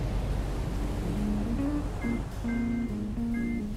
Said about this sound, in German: Ein Passagierschiff gleitet über das Meer.